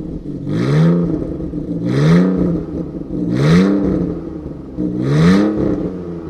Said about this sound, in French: effectivement, euh, le, champ n'est pas tout à fait le même. Et on sent aussi que, eh bien oui, c'est un, c'est un 6 cylindres. Hein, euh, c'est un petit peu plus euh, voluptueux, on va dire, que le 4 cylindres de la Saxo.